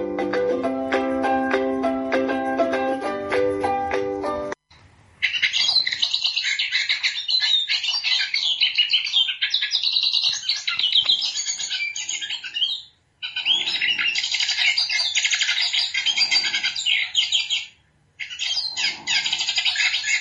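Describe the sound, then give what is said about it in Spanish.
A hooded siskin sings long, rapid, bright twittering phrases, fairly loud, broken by a few short pauses; a brief burst of music plays before the birdsong begins. “Estamos escuchando el Cabecita Negra.”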